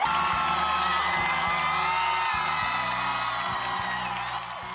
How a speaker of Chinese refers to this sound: 没错，她就是台湾首位民选女总统，三军统帅，辣台派中的辣台妹。让我们掌声欢迎蔡英文。